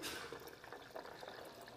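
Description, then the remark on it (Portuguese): Boiling water is poured into a bowl over dry, unsoaked nuts to make nut milk, a steady splashing gush with small bubbling flickers that runs throughout, fairly quiet, with no one speaking. “Olha, eu coloco a castanha aqui, ela não está de molho, está sequinha. Estou usando água quente, água fervendo.”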